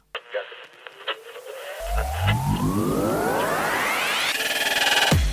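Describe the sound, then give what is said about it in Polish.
Radio interference: scattered clicks and crackle, then a droning buzz with whistling tones that sweep steadily upward, growing denser and louder before cutting off abruptly near the end. “To są zakłócenia. Nie reguluj odbiornika.”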